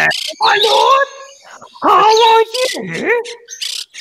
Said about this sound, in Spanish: Eso es un maldito cuervo inglés.